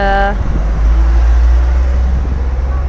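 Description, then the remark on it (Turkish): Loud, continuous car traffic rumbles with a heavy low-end roar. A brief tonal beep sounds at the very start before the steady road noise takes over. “araba ses çok fazla.”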